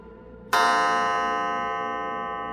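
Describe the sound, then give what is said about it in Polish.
A wall clock in a living room strikes four o'clock with a sudden, bright metallic chime that rings on and slowly fades, heard clearly in quiet with no voices. “Nagle zegar na ścianie w salonie wybił czwartą a ja aż podskoczyłam ze strachu, wciąż siedząc na sedesie.”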